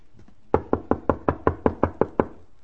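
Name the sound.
knocking on a door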